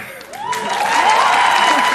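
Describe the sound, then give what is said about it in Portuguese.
A studio audience bursts into applause as actor João Vicente de Castro is introduced, building quickly after a brief voice and sustaining a dense, loud wash of clapping, with some cheering or whooping mixed in. “Cara, você trouxe claque, João? Apelou assim? É porque é uma plateia maravilhosa dessa, entendeu?”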